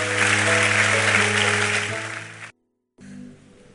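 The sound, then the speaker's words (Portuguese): A church audience applauds God in a dense, steady burst of clapping over sustained low musical tones, cutting off abruptly, then a softer, brief stretch of sound follows after a short silence. “Aplauda Ele. Vamos celebrar a nossa comunhão.”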